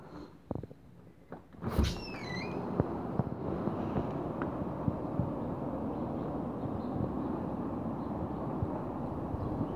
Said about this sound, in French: il y a une tempête dehors. Pas une tempête de neige mais il y a énormément de vent. Je vais essayer de te faire entendre ça. Je vais ouvrir la, la porte du balcon du salon.